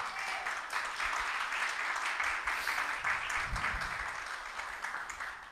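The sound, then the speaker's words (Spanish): A church audience bursts into sustained applause to Christ, a dense wash of many hands clapping steadily for several seconds, fairly loud throughout with a faint murmur of voices beneath. “Un aplauso a Cristo por eso.”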